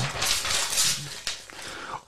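turning a paper page

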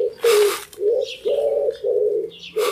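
bird call

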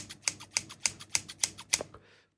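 scissors snipping

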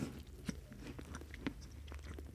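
chewing and lip smacking

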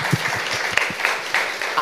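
clapping

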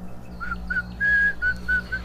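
eerie whistling

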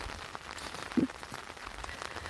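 rain falling outdoors

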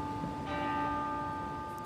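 church bell ringing

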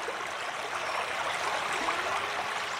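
flowing river water

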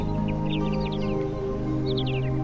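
birds chirping

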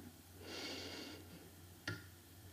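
deep inhalation

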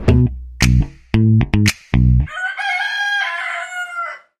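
rooster crowing

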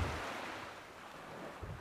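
ocean waves

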